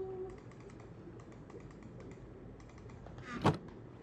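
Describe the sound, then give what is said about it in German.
A short, squeaky creak of a door swings in near the end, sharp, after a stretch of faint clicking and low background rumble. “Oh, das ist eine Tür.”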